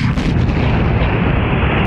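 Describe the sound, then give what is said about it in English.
A loud, sustained roaring blast of rocket ignition following a countdown of 5, 4, 3, 2, a dense low rumble with crackling texture that holds steady at full intensity throughout, with no voices. “Prêt pour le compte à rebours 5, 4, 3, 2, Ignition.”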